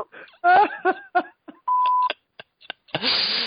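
A single steady mobile phone voicemail beep, a clear mid-pitched electronic tone lasting about half a second, follows a voice greeting and gives way to scattered clicks and then a burst of hissy line noise.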